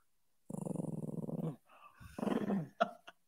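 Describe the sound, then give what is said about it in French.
A dog growls: a steady, throaty rumble lasting about a second, then a brief pause and a second, shorter growl, followed by a couple of quick clicks. “il n'est pas content. Il est pas content.”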